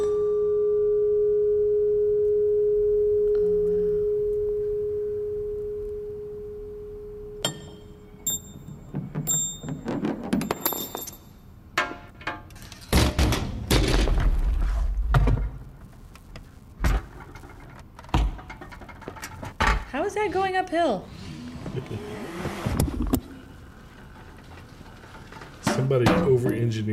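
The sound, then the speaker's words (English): A steady hum gives way to a string of clicks, knocks, rattles, whirs and rolling clatter, one mechanical event triggering the next, as a Rube Goldberg chain-reaction machine runs. “Seriously, the people that make these Rube Goldbergs are amazing.”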